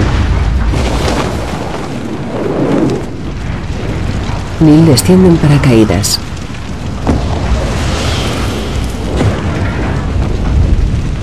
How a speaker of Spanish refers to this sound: La estructura pierde la verticalidad. Neil. Se precipita hacia el suelo a gran velocidad. En el último momento Neil se propulsa. La nave se estrella, provoca una fuerte explosión.